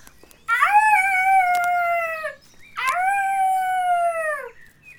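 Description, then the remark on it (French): Two long, sustained howls in a forest clearing, calling the pack for reinforcements, each swooping up quickly, holding a steady mid-high pitch for nearly two seconds, then sagging away, separated by a brief pause. Loud, with no talking. “Un hurlement s'échappe de sa gorge et fait trembler les arbres de la clairière.”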